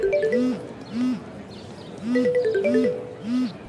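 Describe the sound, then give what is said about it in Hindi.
A phone rings inside a bag with a looping electronic ringtone: short melodic tones rise and fall in a steady repeating pattern, clear and fairly loud, with no one talking over it, as students walk toward a college canteen. “हम कॉलेज की कैंटीन की तरफ बढ़ने लगे कि अचानक किसी का फोन बजने की आवाज आई”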